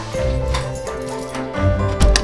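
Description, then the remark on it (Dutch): A key rattles and clicks in a lock, followed by the door of a home being opened, with several sharp metallic clicks and knocks over a steady low background hum. “De deur gaat open met een mooie sleutel,”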